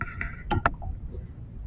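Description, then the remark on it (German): A vitamin C tablet drops into a glass of water, making two quick splashy clinks in rapid succession, followed by only a faint, low background hush with no clear fizzing. “Jetzt kommt das da kannst du mal sagen, es ist ein Glas Wasser.”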